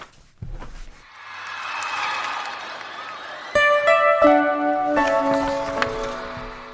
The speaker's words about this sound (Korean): 다만 라이브 버전입니다. 그래서 함성이 있어서 죄송합니다.